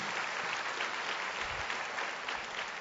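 An audience applauds steadily, a dense, continuous patter of many hands clapping at an even level, with no voices rising above it.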